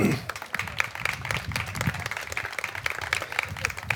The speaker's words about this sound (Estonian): suur tänu, aplaus.